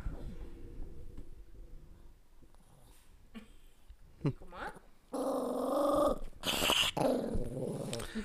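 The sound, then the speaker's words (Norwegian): A male dog growls, starting low and quiet, then breaking into louder, rougher growling snarls in bursts over the last few seconds, with faint rustling in between. “Han her, han knurrer for alt.”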